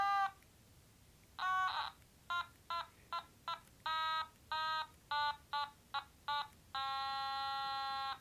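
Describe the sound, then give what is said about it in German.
The simple children's tune 'Alle meine Entchen' picked out as a series of electronic beep tones, each short and evenly spaced with shifting pitch, ending on a longer held note. No voices. “Das war jetzt alle meine Entchen.”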